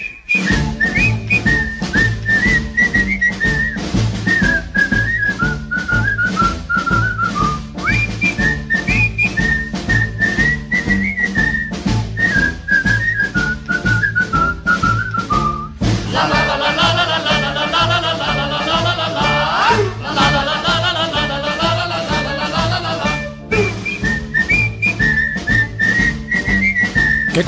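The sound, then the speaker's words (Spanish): A 1950s pop song, originally on a shellac record and remastered, plays loud and clean, its melody carried by whistling over a steady, bouncy band accompaniment, with a fuller instrumental break in the middle. “Suena así de limpio porque era disco de pizarra, lo que pasa que está masterizado, claro.”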